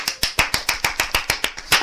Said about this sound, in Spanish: Así que queda inaugurado el, estudio de Radio Arcompa, que se llama Estudios Spa, Sociedad Protectora de Animales. Un aplauso de nuevo.